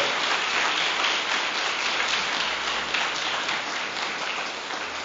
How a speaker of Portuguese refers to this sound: Vamos aplaudir a Jesus por isso, pessoal. Aleluia!